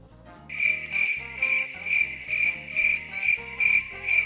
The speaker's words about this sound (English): and crickets. Exactly.